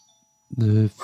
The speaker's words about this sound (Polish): Tutaj dzwonek do drzwi zabrzmiał, ale ja nie będę tego wycinał, bo akurat cenne rzeczy mówiłem.